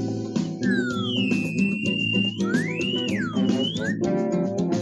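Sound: whistle being blown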